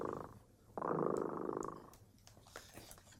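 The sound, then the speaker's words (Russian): A cat, Tremota, purrs, a low rumbling drone that swells for about a second before easing off, followed by soft scattered clicks and faint rustling. “Слышите? Кот Тремота запел свою песенку.”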